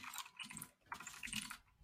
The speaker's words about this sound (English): Probably hear me typing furiously as I talk.